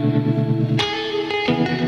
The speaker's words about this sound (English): Just reverb on the guitar and tremolo. Neat.